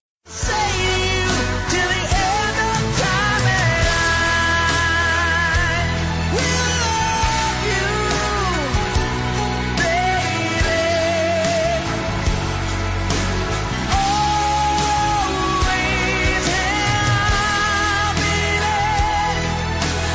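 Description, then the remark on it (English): A rock power ballad with sweeping strings plays loud and full throughout, a sustained sung melody gliding over a steady band backing with no talking. “But let's have a let's have a listen of some of this this track.”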